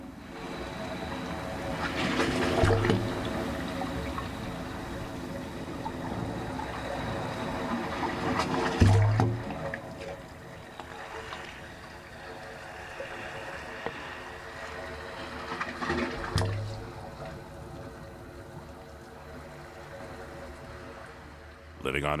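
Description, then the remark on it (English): Low, hollow tones hum steadily from the 25 pipes of a wave organ, an acoustic sculpture in San Francisco Bay, as ocean waves roll ashore, with louder surges of water arriving every several seconds over a constant rushing backdrop. “As the waves roll ashore, the organ's 25 pipes create these musical tones.”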